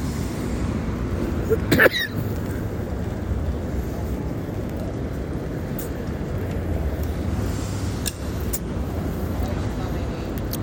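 A short, sharp cough bursts out near the start after a quick inhale, over a steady low rumble, followed by a couple of fainter clicks or catches later on; no clear speech.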